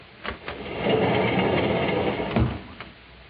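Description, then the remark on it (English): An apartment door in Toledo, Ohio opens as the character Oscar Jackley, played by Jose Ferrer, enters; a few sharp clicks and knocks around a steady, muffled creaking rumble, moderately loud, with no voices. “Sadie, the watchful maid, is not at all surprised when the door opens and Oscar Jackley, played by Mr. Jose Ferrer, reconnoiters the situation.”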